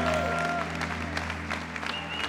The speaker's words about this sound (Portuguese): Para isso nós já antecipadamente damos honra, glória e louvor, a começar com essas palmas que são para ti.